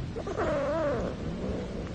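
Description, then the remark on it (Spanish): A cat lets out a single drawn-out yowl with a wavering, rising-then-falling pitch, fairly loud over a low rumbling background. “Siento una gran antipatía hacia este gato.”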